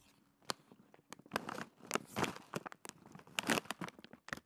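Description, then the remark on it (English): A crinkly bag of chips made with chicken breast, egg whites and chicken bone broth is torn open at a microphone, a burst of loud plastic crackling and ripping with sharp, irregular snaps that continue for several seconds with no talking. “can you just open the goddamn chips?”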